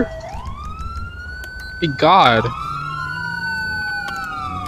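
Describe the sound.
A video game Los Santos police car siren wails steadily with sweeping, drawn-out tones, loud, while a person briefly shouts over it partway through.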